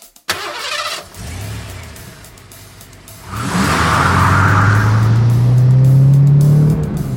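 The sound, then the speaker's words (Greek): A car engine cranks and catches, idles briefly, then revs up with a rising tone as the car pulls away and accelerates. No one speaks. “Με έβαλε μέσα στο αυτοκίνητο και κατευθύνθηκε στη θέση του οδηγού, περπατώντας προσεκτικά με τις γροθιές του σε επιφυλακή.”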